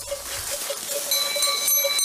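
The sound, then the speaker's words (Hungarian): A flock of sheep grazing out in the open, with short bleats repeating over a steady outdoor hiss and faint metallic bell tones ringing in the background. No one speaks. “Hogy ezek, ezek nagyon jó jelzik, még azt is, hogy, hogy mennyire jó helyen legel a birka, hogy, hogy azt is tudja, hogy jelezné nekünk, hogy most ott szeret legelni, vagy csak el van ott a birka, mint most, hogy csak súroltatják a fergeit.”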